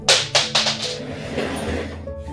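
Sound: die being rolled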